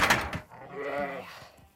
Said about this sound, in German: Oh Mann, so viel Aufregung für die Schafe. Die haben natürlich ein bisschen Angst,